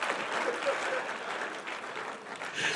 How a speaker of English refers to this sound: Can someone just like give me a round of applause or something? Not these half little woo, woo, ah, ah.